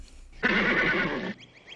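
A horse gives one loud whinny lasting about a second, a bright wavering neigh that cuts off abruptly, followed by a faint chirping sound in the background.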